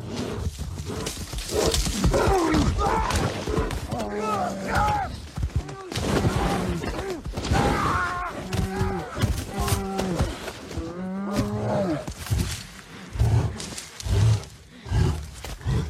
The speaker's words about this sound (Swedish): vi klämmer in scenen här lite fort bara får vi höra hur det kan låta att bli attackerad av en björn.